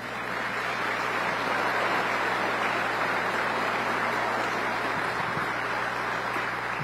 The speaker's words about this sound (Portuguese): a quem eu peço uma salva de palmas.